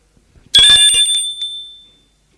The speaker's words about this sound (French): L'on sonne à la porte